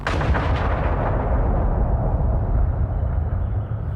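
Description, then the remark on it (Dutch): A V1 flying bomb explosion as an off-course V1 strikes the village of Warnsveld on 28 March 1945: a loud, sustained blast of roaring, crackling rumble that fills the whole clip, its harsh upper edge slowly dulling into heavy low thunder. No voices. “Zo was daar op 28 maart 1945, vlak voor de bevrijding, een suizend geluid hoorbaar. Gevolgd door een helskabaal.”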